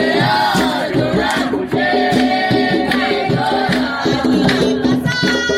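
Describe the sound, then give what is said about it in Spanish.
A large crowd of protesters at a student demonstration chants loudly in unison, voices rising and falling in a steady rhythmic cadence that carries without pause for several seconds. “En estos momentos entonces vamos a compartir un sonido de el momento de estas manifestaciones.”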